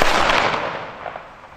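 A three-volley rifle salute at a memorial to those killed in the Great Patriotic War, after a minute of silence: one loud, sharp burst of gunfire that trails off into a long rumbling decay, with a couple of faint pops following. No voices.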